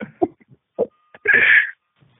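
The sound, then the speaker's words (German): A voice imitates a buzzing, electric-sounding bass drone, like a door buzzer heard from far off or an electric razor: a few short vocal bursts, then one loud, raspy buzz lasting about half a second. “Mit dem Bass kannst du, das klingt so wie so ein Türöffner von weit, oben, wenn du im fünften Stock wohnst oder wie du im sechsten und dann muss man noch um die Tür aufmachen.”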